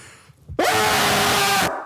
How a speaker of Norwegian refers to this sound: Så jeg hadde hatt veldig pris på hvis du kunne skrike alt du har inni mikrofonen.